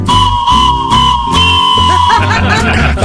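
A steam train whistle holds one long, steady, high-pitched note for about two seconds over a loud, rhythmic low chugging, then gives way to busier warbling tones while the chugging continues.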